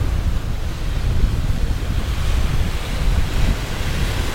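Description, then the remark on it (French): Steady roar of sea waves washing onto a beach, fairly loud, with gusty wind buffeting the microphone throughout; no voices. “Là, ah, on approche de l'eau.”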